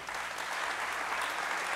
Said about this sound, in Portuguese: Dá um aplauso a Jesus aí.